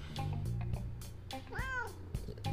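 A cat lets out a single drawn-out meow with a rising then falling pitch, fairly close and clear, over a steady low hum and some background clatter.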